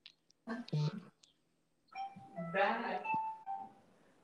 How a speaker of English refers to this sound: that actually is an alarm that goes on in another phone. That is so funny. It sounds like it was perfectly timed.